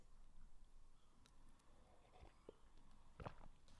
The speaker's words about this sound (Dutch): Ik neem ondertussen even een slokje van mijn thee.